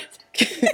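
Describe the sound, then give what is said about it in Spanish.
A single abrupt sneeze bursts out after a brief near-silence, loud and breathy with a sharp explosive onset trailing into a short noisy exhale. “¡Salud!”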